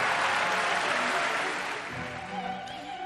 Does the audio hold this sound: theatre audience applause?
yes